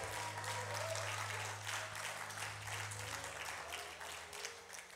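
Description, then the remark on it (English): A church audience at Grace Point claps and cheers steadily in praise of Jesus, dense applause at full volume with scattered shouts rising over a low sustained hum throughout. “Give Jesus a praise like he would actually hear it.”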